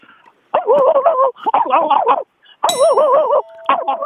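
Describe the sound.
A phone-in caller imitates a dog barking in a call-in contest, with a string of drawn-out, wavering voiced yelps in four loud bursts separated by brief pauses, with a short metallic clang near the middle.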